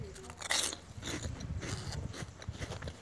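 A loud crunchy bite into a Skinny cheese biscuit, followed by about two and a half seconds of steady, crackly chewing with no voices.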